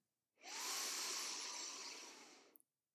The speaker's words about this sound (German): Jetzt atmen wir anders herum, also von unten nach oben ein